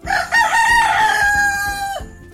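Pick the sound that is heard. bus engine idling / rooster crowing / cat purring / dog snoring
rooster crowing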